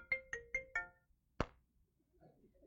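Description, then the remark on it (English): A mobile phone ringtone chirps out a quick four-note melodic jingle during a church chapel service, followed by a single sharp thump and then faint, murmured voices in the background. “Did I actually bring my phone to church?”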